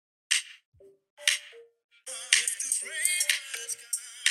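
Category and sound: song played back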